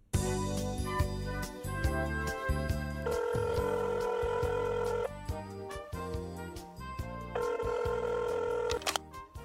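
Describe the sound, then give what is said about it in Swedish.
A phone call being placed: quick electronic dialing beeps, then two long bursts of ringing tone with a pause between them, loud, with no one talking. “Vi tar och ringer honom.”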